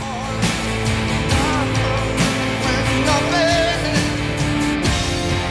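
A full rock band plays loudly and densely, with driving drums, layered guitars and a sustained melodic line, the sound steady and energetic throughout, as if performed live.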